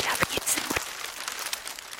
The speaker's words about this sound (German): Ich höre Gesprächsfetzen, eine Zeitung oder Papier. Es wird auch gefaltet oder es raschelt.